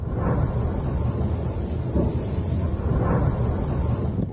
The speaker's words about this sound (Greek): Ισχυρέ εκρήξει σημειώνονται το πρωί τη Πέμπτη στο λιμάνι του Μπερντιάνσκ τη Ζαπορίζια, που βρίσκεται υπό ρωσικό έλεγχο.